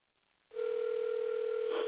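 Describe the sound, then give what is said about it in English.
After a moment of quiet line hiss, a steady electronic telephone ringing tone starts and holds unbroken, the thin, band-limited sound of an outgoing call to a friend ringing over a phone line, with no voices. “All right, let me see if I can if he answers the phone because I know he would love to share with this one.”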